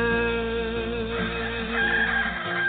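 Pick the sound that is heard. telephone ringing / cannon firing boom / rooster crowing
rooster crowing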